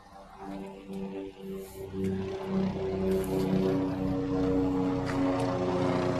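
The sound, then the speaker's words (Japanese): A helicopter drones overhead with a steady, throbbing rotor hum and engine tone, growing a bit louder in the first seconds and then holding constant, with no one talking. “あ、ヘリコプターか。”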